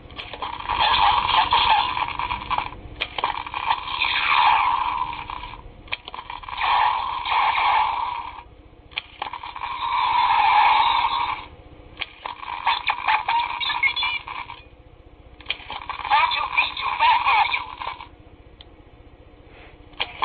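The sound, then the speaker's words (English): A shimmering, sparkling sci-fi transporter effect plays six times in a row, each burst lasting a couple of seconds with short pauses between, loud, with no one speaking. “made fun of us for not knowing the sounds. The sounds of the, the transporter”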